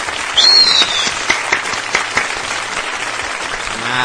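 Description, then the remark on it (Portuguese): Steady applause from a group, dense crackling claps filling the whole clip, with a brief high whistle or cheer near the start and no one speaking. “Sábado de palmas para eles.”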